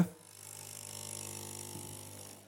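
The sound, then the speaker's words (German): A coffee machine brews the first coffee of the morning into a cup, running steadily: a low pump hum with a layered buzzing drone and a hissy wash over the top, holding at a moderate level for a couple of seconds with no voices. “Zuerst kommt mal ein Kaffee.”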